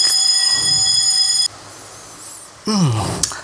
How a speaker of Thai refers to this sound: คิดดูเมื่อกี้นี้สัญญาณ ไฟไหม้ดัง เออปรากฏว่าวันนี้เขามีการเช็คสัญญาณไฟไฟไหม้เนาะขนาดคุยเรื่องคุยเรื่องการทำเพลงนี้ยังแบบ ยังถูกขัดจังหวะ